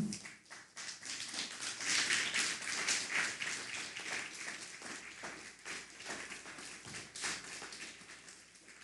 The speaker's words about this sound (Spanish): Vamos a darle un fuerte aplauso al Eterno.